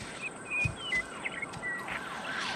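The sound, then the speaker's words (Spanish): A faint, far-off police siren wails with rising and falling tones, repeating its sweeping pattern over a low background hum, with no voices present. “Sonó una sirena a lo lejos. La de los policías, no la de los cuentos.”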